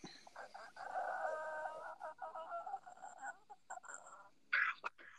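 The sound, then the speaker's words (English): A person lets out a long, drawn-out voiced yawn that lasts a few seconds over a phone call, heard faintly with the phone pulled away, followed by a short breathy exhale. “Yeah, when you were yawning, it must have been just because you don't use a fucking.”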